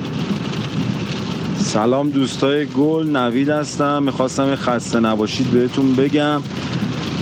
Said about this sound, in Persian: ببخشید اگه صدا خوب نمیاد الان تو اتوبانم و داره بارون میاد